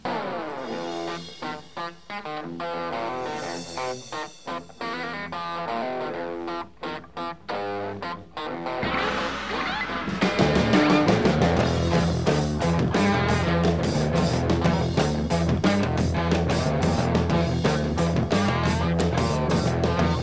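A rock band plays a cover song led by distorted electric guitar, starting with a sparser riff before the full band crashes in halfway through, loud and dense to the end.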